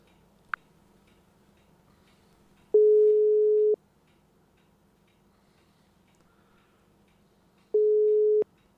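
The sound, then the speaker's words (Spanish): A phone call's ringback tone sounds twice as a call is placed to an interview guest, each a steady, moderately loud one-second drone separated by several seconds of near silence, after a brief click at the start. “ahora sí, vamos a llamar al señor Lolo Ars”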